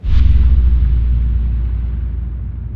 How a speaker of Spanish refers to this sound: Un rato después, se divisó una explosión lejana en medio del mar.